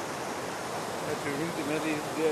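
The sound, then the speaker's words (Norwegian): A steady rush of flowing water from the Sjansjebekken stream, with logs lying across it, fills the whole moment without pause, with faint voices briefly murmuring underneath toward the end. “Du ser de stokka ligger over bekken der.”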